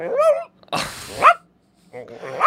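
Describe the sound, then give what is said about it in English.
A person's voice mimics a small Chihuahua-Pomeranian mix dog crying, starting with a high, wavering whimper, then giving two short, yelping bark-like bursts separated by a brief pause, fairly loud. “That's a good dog sound.”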